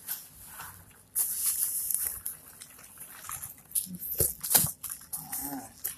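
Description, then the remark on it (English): Continuous rustling and crackling of packing peanuts being shifted around while unboxing books, with irregular louder bursts of scraping and crunching as hands dig through them. “Uh, all trying to get it out of here without spilling peanuts all over the yeah.”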